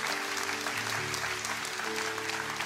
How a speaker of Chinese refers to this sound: 再一次给自己一个掌声，谢谢大家。